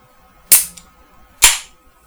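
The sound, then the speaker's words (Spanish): A can of green soda made with yeast products being cracked open: two sharp, loud pops about a second apart, each trailing into a short fizzing hiss, with a faint click between them and no voices. “Es una, es una sodita verde que tiene productos de la levadura”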